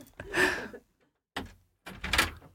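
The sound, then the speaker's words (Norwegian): A door being opened as people arrive: a rattling swish, a short clunk after a brief pause, then another longer scraping rattle, with no talking. “Nå som jeg hører at det kommer folk.”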